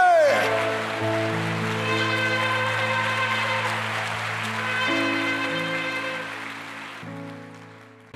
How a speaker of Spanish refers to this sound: Suelte la Biblia y dele un fuerte aplauso al que vive.